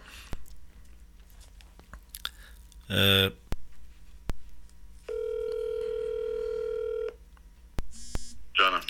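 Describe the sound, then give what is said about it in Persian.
Phone line noise with clicks and a loud crackling burst as the call connection drops, then a steady electronic tone holds for about two seconds, followed by short bursts of dialing tones as the call is reconnected. “ولی اجازه بدین که مثل ارتباطمون قطع شده”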